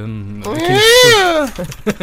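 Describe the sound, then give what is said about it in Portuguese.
A cat lets out one long, loud meow that rises and then falls in pitch, with a low voice talking briefly before and after it. “Ainda não temos rãs, mas temos gatos.”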